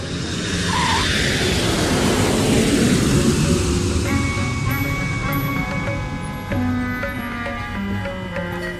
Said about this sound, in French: Nous sommes dans un avion.